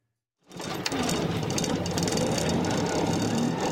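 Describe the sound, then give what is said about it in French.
After a brief moment of silence, the engine of a roadworthy Citroën 2CV made entirely of wood, up for auction in Indre-et-Loire, France, kicks in and runs steadily, a loud, continuous rattling drone with a busy mechanical chatter and no voices. “Un moteur qui ronronne, une voiture apte à circuler. Pourtant, cette Citroën de chevaux est faite entièrement de bois.”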